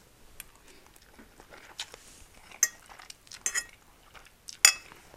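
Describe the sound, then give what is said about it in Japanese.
Cutlery clinks and scrapes against dishes while eating a homemade lunch made with Nippn's Oh My Koku-uma Garlic Tomato, a series of sharp metallic taps at an irregular rhythm, with a few brighter clinks standing out over soft background rustle. “久々の昼ごはん作って食べながら雑談”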